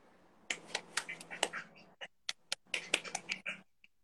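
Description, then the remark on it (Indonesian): A brisk burst of hand clapping, many sharp crisp claps in quick succession, loosening into sparser claps midway before picking up again and trailing off. No talking. “gue mau tepuk tangan aja buat lo”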